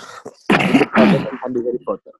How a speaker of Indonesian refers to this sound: Wah batuk lu udah keren ya kayak gini.